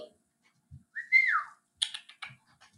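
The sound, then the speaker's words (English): A pet lovebird, one that had been dumped, tweets: one loud swooping whistle rising and falling, then a quick cluster of short, scratchy high chirps. No one talks over it. “Can you tweet?”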